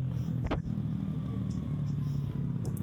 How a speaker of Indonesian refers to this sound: ini motor berisik oh, iya.